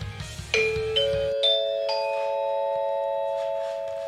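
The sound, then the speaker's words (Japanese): A public address chime introducing the Tako town weather report plays four rising bell-like tones about half a second apart, each ringing on and overlapping into a sustained chord that slowly fades, with a low hum of background music cutting out early. “えっとですね BGM が止まるのを待つ放送チャイム OK 放送チャイム”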